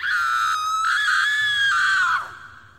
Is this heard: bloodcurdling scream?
yes